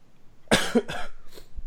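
A short coughing fit as a speaker chokes while talking: three harsh coughs in quick succession, the first loudest and the following ones gradually weaker, with no talking.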